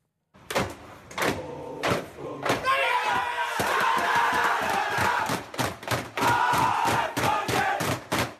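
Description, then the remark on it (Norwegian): A football crowd erupts in loud, sustained cheering and shouting after FK Grenland beats Hei in a fourth-division match, with sharp repeated thumps and bangs punctuating the roar throughout. “Det jubles for seier i fjerdedivisjon.”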